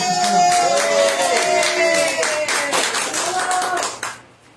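An audience bursts into loud, sustained applause for the show's producer, many hands clapping in a dense, steady patter with cheering voices mixed in, before it quickly dies away at the end.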